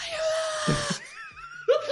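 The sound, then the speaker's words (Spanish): A voice imitates a desperate scream for help, as of a person sinking in the sea: one long, loud, sustained high-pitched cry, then a brief pause and a second shrill cry starting abruptly at the end. “Y que escucharon mis gritos desesperados, pues.”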